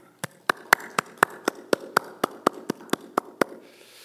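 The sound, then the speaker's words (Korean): On Mother's Day, a church audience claps in thanks to God and to their mothers, about fourteen sharp, even claps at a brisk steady beat, the last few growing softer before stopping. No one speaks. “또 오늘의 우리가 있게 하신 우리 어머니들에게 감사의 박수를 드리도록 하겠습니다.”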